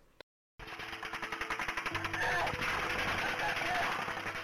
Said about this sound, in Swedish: Och under tiden så var det då en av poliserna som träffades av ett skott. Och det här fångades då av polisens kroppskameror.